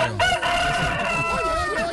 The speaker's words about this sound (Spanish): El gallo